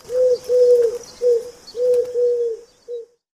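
A pigeon coos in a soft, rhythmic run of five or six low, rounded notes with brief pauses between, with faint higher ambient hiss behind.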